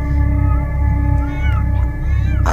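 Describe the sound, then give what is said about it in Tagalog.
Drawn-out, wavering cat yowls sliding up and down in pitch, loud, layered over a steady low rumble with a brief sharp burst near the end. “Tungal na uh, tungal ang mga aswang na nag-anyo bilang pusa.”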